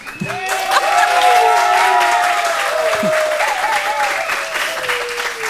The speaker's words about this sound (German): Wir sitzen heute hier vor Publikum, was ihr gleich hören werdet an dem brandenden Applaus, der hier durchs Zelt schallen wird.